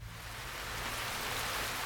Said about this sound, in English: It's raining now. It's raining now.